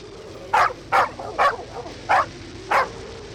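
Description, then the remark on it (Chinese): Two dogs, Buck and Spitz, bark in a fight: five sharp, loud barks at uneven intervals, with softer whining and growling sounds between them and a low steady background hum. “两只狗的冲突一触即发。”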